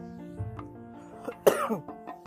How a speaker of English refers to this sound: I was kind of under the weather over the weekend, so I still got like a little cough from my allergies and stuff. So kind of wait for my allergy medicine to kick in, so I might be huffing and puffing, but y'all forgive me.